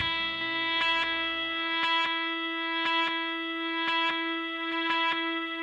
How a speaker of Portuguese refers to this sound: E para começar, vamos logo com a faixa representando tudo o que vimos sentindo há quatro anos,